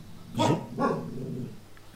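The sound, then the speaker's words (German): Two quick, fairly loud dog barks, the second trailing into a lower grumbling sound before fading out. No one speaks. “der Hund findet es auch nicht so gut.”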